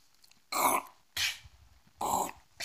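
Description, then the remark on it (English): A voice imitates a shovel digging a grave: three and a half harsh, breathy scraping bursts at an even, unhurried rhythm, fairly loud, with short quiet gaps between. “that's the sound of me taking a shovel and digging a grave.”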